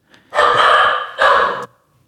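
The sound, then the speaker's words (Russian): A guard dog barks twice, loud, at something it saw outside the window: a long drawn-out bark in a medium voice, not its deepest, followed quickly by a shorter one, with quiet before and after. “Нашу сторожевую собаку прервала мое, мой поток мысли.”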